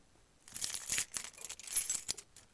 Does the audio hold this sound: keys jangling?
yes